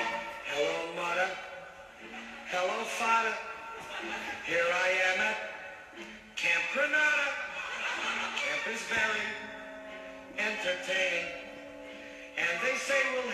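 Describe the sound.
A humorous novelty song plays from a recording, a male voice singing steady verses over a light instrumental backing, clear and continuous throughout.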